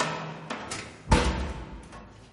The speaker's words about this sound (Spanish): Él abre una puerta acorazada.